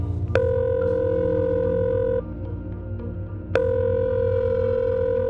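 A telephone ringback tone purrs steadily, two long electronic rings separated by a short silent gap, heard clearly over a low background hum with no one speaking.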